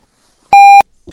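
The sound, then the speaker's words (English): A single loud electronic beep, a steady pure tone lasting about a third of a second, stands alone in silence before a faint brief sound at the very end. “Is there a beep?”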